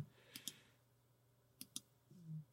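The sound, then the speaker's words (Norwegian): Two quick pairs of crisp, fairly loud computer mouse clicks, separated by about a second over a faint steady hum, with no talking. “jeg klarer ikke å klikke på Anomi der”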